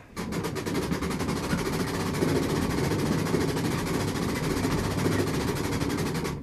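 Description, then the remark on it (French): The spring motor of a Belgian mechanical piano being wound, a spiral spring with a regulator, making a steady rapid ratcheting clatter that runs continuously at an even, fairly loud level for several seconds, with no voices. “Mais ça fait à peu près le même bruit, mais en, plus amplifié que les gramophones comme euh, moteur, comme remontage.”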